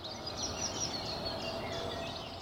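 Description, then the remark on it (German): Early-morning outdoor ambience recorded at 5 a.m. in front of a house's front door: a steady, even background hush with faint birdsong chirping throughout, no voices and no sudden sounds. “Oder den Montagmorgen, gleiche Zeit, selbe Tür.”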